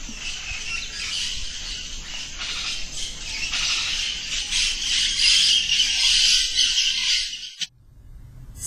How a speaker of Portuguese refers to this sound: se ouvem os agouros das rasgas mortalhas, o canto do Irapuru, a mata é o espaço dos sonhos, das melodias dos pássaros e animais silvestres, das caçadas com muitas histórias.